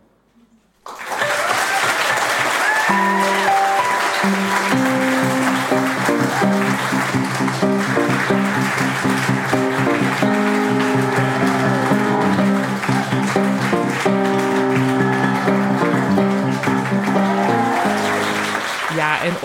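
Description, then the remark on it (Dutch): Steady, loud applause from start to finish at a live storytelling afternoon, with live piano chords and notes ringing clearly underneath the clapping, played by the pianist Amir Swaap. “Onder het applaus hoorde je onze pianist Amir Swaap, die haast nooit in deze podcast te horen is, maar die live bijna altijd de muzikale omlijsting verzorgt van onze verhalenmiddagen.”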